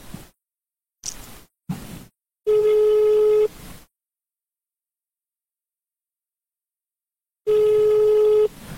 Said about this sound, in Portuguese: Vou ligar aqui, ó. Não tem nada combinado, ele não tá nem sabendo. Vou pôr no Viva Voz aqui.